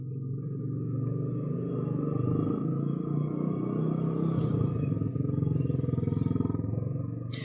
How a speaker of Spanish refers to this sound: ahí viene la moto de regreso.